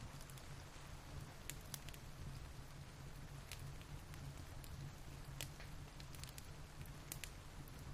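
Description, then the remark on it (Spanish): Steady rain pours down outside alongside a crackling fire, with frequent sharp pops and snaps over a continuous dense hiss. No voices, just an even, unbroken wash of sound. “El sonido del fuego junto con el sonido de la lluvia te hacen sentir tranquilo, muy relajado y contemplativo.”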